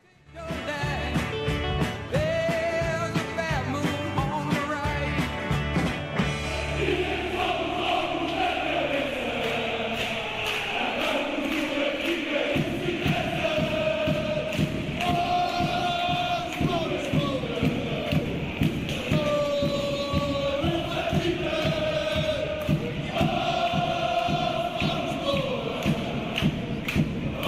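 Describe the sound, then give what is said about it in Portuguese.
A large crowd of football supporters chants the chant 'Dizem que somos loucos da cabeça' as a sung melody in unison, loud and steady throughout, backed by a driving, regular pounding of drums. “Então vamos escutar Dizem que somos loucos da cabeça.”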